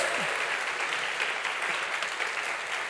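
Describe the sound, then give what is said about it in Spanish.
A church audience applauding to the Lord for newcomers being welcomed, a steady, dense wash of many hands clapping at once that holds even throughout with no voices standing out. “démosle un fuerte aplauso al Señor por ellos.”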